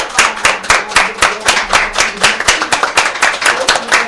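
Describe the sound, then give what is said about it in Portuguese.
A round of applause for a woman entrepreneur at the end of a program: many hands clapping in a dense, steady rhythm of sharp, bright slaps, loud and continuous for the whole stretch, with no voices over it. “Eu quero levantar e bater palmas. Uma, salva de palmas é. para ela.”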